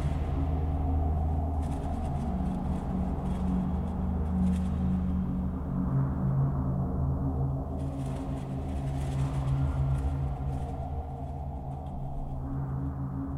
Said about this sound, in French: Le grondement des avions s'amplifie.